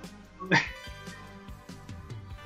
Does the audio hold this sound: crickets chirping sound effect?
no